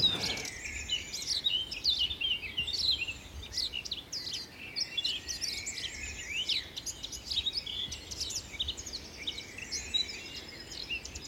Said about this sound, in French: J'ai un coup de cœur pour la fauvette à tête noire. Elle est mélodieuse, elle est inventive, elle est imitatrice, euh, donc elle est vraiment très très agréable. C'est l'oiseau mélodieux par excellence.